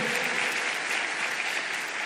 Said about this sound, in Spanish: ¿Será que tú puedes dar un aplauso al Señor?